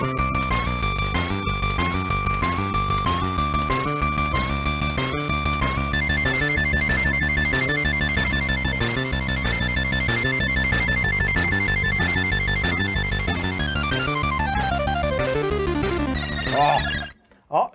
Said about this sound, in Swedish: Det var bra och det var ju kul för att det var mycket med C64 handlade ju om det klassiska ljudchippet, SID-chippet som fanns där som möjliggjorde den här typen av musik.